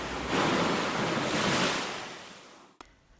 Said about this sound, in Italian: Devo vincere la forza della natura. Queste onde non avranno la meglio su di noi.